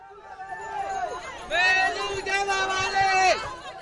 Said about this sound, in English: She ended her speech, waved at the crowd, and descended the stairs from the stage to a manic crowd pushing to get closer to her.